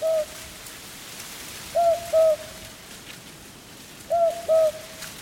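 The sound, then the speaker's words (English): An owl hoots in repeated pairs of soft, low calls, spaced a couple of seconds apart, over a steady hiss of background noise like light rain. No one speaks. “It's only a possum gathering food under the watchful eye of an owl.”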